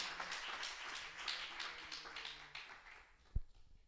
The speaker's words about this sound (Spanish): Dele ese aplauso glorioso al Señor Jesucristo.